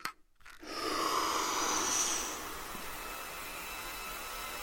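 A slow, deep breath drawn in, a soft airy rush lasting about two seconds before easing into a quieter steady hiss.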